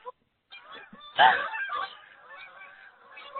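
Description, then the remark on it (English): Geese honk repeatedly in a loose, overlapping chorus as they fly by outdoors, growing loudest partway through as the flock passes, then trailing off into scattered calls. “I'm just waiting for the geese to go by.”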